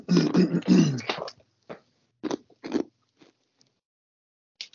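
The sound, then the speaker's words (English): A short voiced mumble, then chewing: several moist, crunchy bites spaced irregularly, fairly loud, with quiet gaps between them. “I was chewing somebody. That was that was mad rude, especially when I'm recording.”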